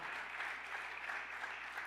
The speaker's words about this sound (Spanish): Dele otro aplauso fuerte al Señor.